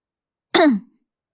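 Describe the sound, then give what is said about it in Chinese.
A single short throat clearing by a teacher, a quick rough burst that drops in pitch and trails off after about a third of a second, heard alone with silence before and after. “老师清了清嗓子说”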